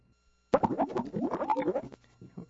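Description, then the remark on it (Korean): A cartoonish stomach rumble from Yoon Moon-sik's stomach after eating spicy ramen: a loud burst of bubbly, gurgling plops and squelches that warbles for about a second and a half after a short silence, then fades into a low hum. “저 윤문식이 배에서 나는 소리예요.”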